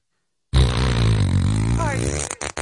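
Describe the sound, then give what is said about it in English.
A voice loudly imitates straining, spluttering toilet noises in one sustained burst of rumbling, wet grunts and farting sounds, with no other talk. “I mean, this is, uh, she's taking a big dump and really loosening up.”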